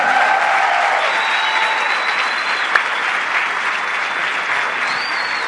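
Steady audience applause welcoming a new entrepreneur from Palmira, a dense, even wash of many hands clapping at constant loudness, with a faint whistle and a brief sharp click partway through.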